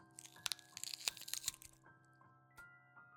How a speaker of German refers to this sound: Und dass sich die Schritte des Wesens anhörten, wie Stiefel, die auf Schnecken traten.